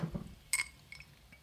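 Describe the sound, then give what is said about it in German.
Two glasses of gin clink together in a toast, one bright, ringing chime near the start, followed by a couple of fainter clinks as the glasses are handled. “Auf dich mein lieber. Prost. Auf unser gemeinsames Gin-Projekt.”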